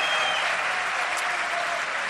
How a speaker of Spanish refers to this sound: Quiero, quiero que el primer gran aplauso de la noche se lo lleve la selección española femenina de fútbol, que ha sido campeona de la Liga de Naciones.